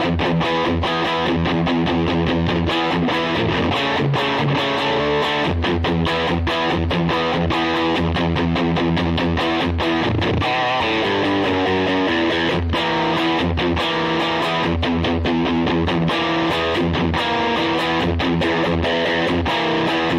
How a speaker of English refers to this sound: Yeah, and that pedal's very loud with this guitar. See, I'm not using single coil pickups on that song, but I'll go ahead and I'll just play through it and you guys can hear it, okay? It's like this.